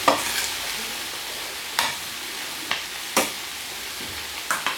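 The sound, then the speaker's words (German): Rice and vegetables crackle and sizzle steadily in a pan, with several sharp scraping bursts as a utensil stirs through them, fairly quiet, no voices. “Ja, dann rühre ich das hier einmal um, man hört knistern.”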